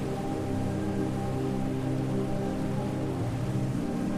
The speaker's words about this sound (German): Aus der allumfassenden Stille des Eisfeldes wird ein tosendes Rauschen. Den Wasserfall können wir hören lange bevor wir ihn sehen.